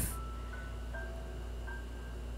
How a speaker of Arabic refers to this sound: تجاهلوا صوت المكيف